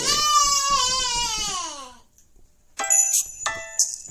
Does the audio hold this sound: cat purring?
no